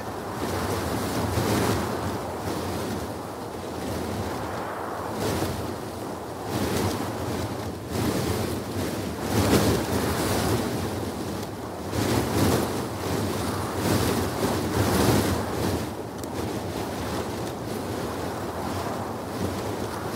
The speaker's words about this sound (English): So there's a certain chutzpah and perversity as well as the recognition of a technical challenge in setting out solely to entrap the wind, the very thing that most recordists go to extremes to avoid.